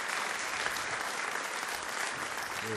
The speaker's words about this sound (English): Long one too. Oh, you get the fade out. Oh, the, did you hear that one guy in the back? He was like, he said he wanted to make sure that you heard that he was still clapping.